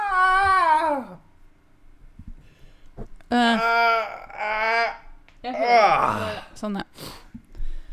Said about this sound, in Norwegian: Det er så digg å lage sånne lyder når man strekker seg. Jeg bare lurer på hva naboen tenker.